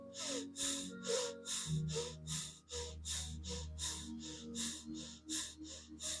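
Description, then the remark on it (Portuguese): Quick, short breaths push in and out in a steady rhythm, about two per second, fairly loud over a soft sustained musical drone, during a guided breathing exercise with deliberately sped-up breathing. “Para isso, vamos acelerar um pouquinho nossa respiração ficando mais curta e rápida, nutrindo nosso fogo com a nossa respiração.”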